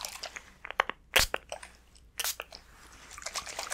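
Two short, hissing spritzes from a spray bottle sprayed onto a person's face to test whether it feels warm or cool, with faint clicks and rustling between them and no talking.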